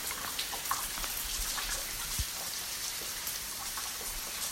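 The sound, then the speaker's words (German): Steady dripping and trickling of glacier meltwater inside an ice cave in a mountain, dense overlapping drops pattering like light rain, continuous, with no voices; the glacier is melting because of high temperatures. “Ja, also was man da hört, ist das Schmelzwasser.”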